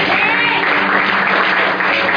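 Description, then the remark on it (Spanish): Steady audience applause given for Jesus, a dense wash of many hands clapping at a constant loud level throughout, with no voices standing out. “Un aplauso fuerte a Jesús.”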